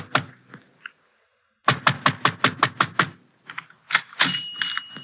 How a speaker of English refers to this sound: 603 Via Maggiore is a small tobacco shop at the end of a narrow, crooked street near the waterfront. The shades are drawn and the shop is dark, but I pound on the door.